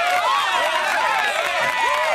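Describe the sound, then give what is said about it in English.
A crowd applauds with cheers and whoops, a dense, steady wash of clapping and excited voices that holds loudly for a couple of seconds without any single speaker. “we got to give him a round of applause.”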